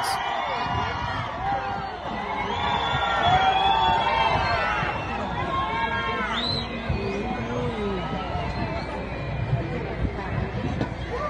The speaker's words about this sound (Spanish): Ahí escuchaban ustedes cuando la gente le gritaba fuera al presidente Gustavo Petro